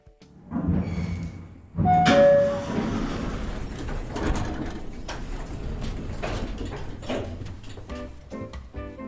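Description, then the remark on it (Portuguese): Hotel elevator doors slide shut with a clunk and a brief tone, then the car hums and rumbles steadily as it moves, a mechanical whir with no voices. “Aqui chegados, entramos então no patamar da discussão, à boleia de um daqueles elevadores, panorâmico de preferência, que nos deixa no piso de um hotel que escolhemos com o objetivo de sair da rotina tradicional.”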